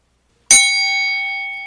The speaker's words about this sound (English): Wait for the bell sound.